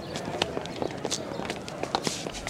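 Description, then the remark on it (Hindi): Several people walking toward a college canteen, their footsteps tapping in a quick, irregular rhythm, with faint background murmur underneath. “हम कॉलेज की कैंटीन की तरफ बढ़ने लगे”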